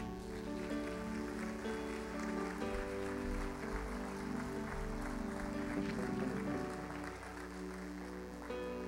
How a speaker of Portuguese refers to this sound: Aplauda ao Senhor.